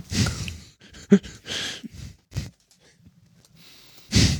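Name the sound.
yawn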